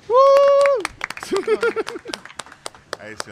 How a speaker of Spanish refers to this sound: Un aplauso.